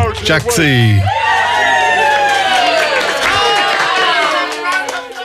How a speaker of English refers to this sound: Has a round of applause.